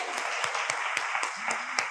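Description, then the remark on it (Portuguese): A crowd applauds guests who came from São Paulo, steadily, a dense crackle of many hands with sharper individual claps standing out at a quick, regular pulse. A faint voice hums briefly underneath. “Vocês vão aplaudi-los, porque eles vieram lá de São Paulo.”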